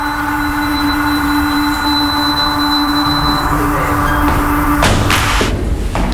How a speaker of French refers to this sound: La porte est ouverte.